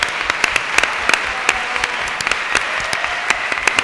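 A crowd applauds steadily, dense overlapping claps forming a continuous wash of sound with sharper individual claps popping out irregularly, sustained at an even, fairly loud level throughout.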